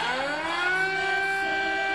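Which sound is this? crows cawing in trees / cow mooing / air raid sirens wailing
air raid sirens wailing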